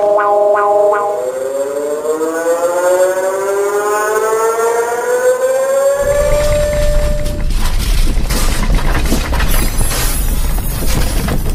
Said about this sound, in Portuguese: Aí estão alguns dos alertas de terremoto ao longo do mundo.